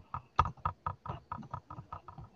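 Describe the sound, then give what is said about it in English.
Steady, fairly loud keyboard typing, a quick run of clacking keystrokes, each with a hollow knock beneath it as the uneven table rocks on one corner. No one speaks. “Hey, you want to put a napkin under that, one of them corners, man, because you rocking while you typing.”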